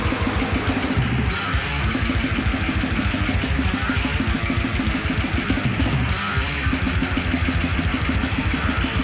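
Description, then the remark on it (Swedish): A loud, dense, raw-sounding song by a band from Atlanta, Georgia plays continuously with driving, steady rhythmic pulses and a thin bass guitar played without any low bass frequencies, filling the whole stretch without any talking. “De har valt approachen att inte ha någon basfrekvens på sin basgitarr.”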